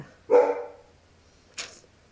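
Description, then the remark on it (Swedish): A dog lets out one full, resonant bark, then a sharper, higher yip about a second later, with quiet in between and no talking. “hundarna håller på.”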